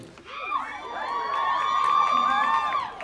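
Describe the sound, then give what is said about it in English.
A very large crowd at a film talk event cheers and whoops, many overlapping voices rising into a loud, sustained roar that holds steady for a few seconds without letting up. “this is the biggest crowd I've ever seen for an Apple Talk”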